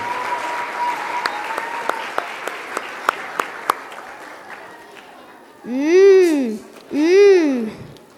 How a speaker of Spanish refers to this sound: Bien, papás, recibimos con aplauso a quienes en este día nos van a hacer la representación.